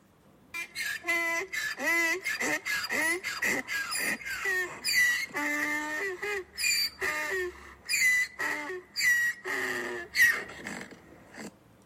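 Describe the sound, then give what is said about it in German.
Donkeys bray loudly in a garden early in the morning, a long run of harsh, wheezing hee-haw cycles that rise and fall in pitch with a steady, pumping rhythm. No one speaks. “So klingt es bei mir im Garten. Also meine Esel klingen so.”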